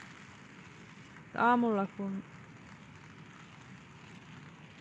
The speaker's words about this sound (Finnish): Ja nytkin kun ollaan teltassa, niin nyt tuli ilta, niin vettä sataa. Tallentuuko se tähän?